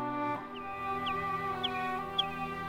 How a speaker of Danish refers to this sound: Lyden af fuglesang fyldte luften, og skovens dyr kom ud af deres skjul for at hilse på Frida.